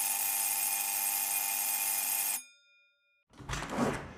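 An apartment intercom doorbell, in a building with many entrances and unlabelled bells, rung after two failed tries, gives one loud, harsh, steady buzz lasting a couple of seconds and cuts off sharply. After a brief silence comes a short burst of crackly, distorted noise.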